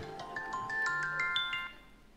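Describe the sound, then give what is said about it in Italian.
A mobile phone reminder alert chimes a quick melodic run of bright electronic notes, about a dozen beeps over two seconds, moderately quiet with no one speaking over it. “Quindi, cellulare. E quindi? E rispondi, senti chi è?”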